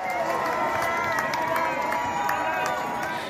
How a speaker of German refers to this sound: Jubel in der historischen Altstadt von Bohn beim Abschiedsbesuch von Bundeskanzlerin Angela Merkel.